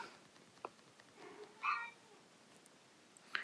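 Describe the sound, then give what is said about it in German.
A cat lets out a few short, whiny meows over a quiet background, the clearest cry in the middle and a brief one near the end, soft. “Meine Katze jammert schon wieder.”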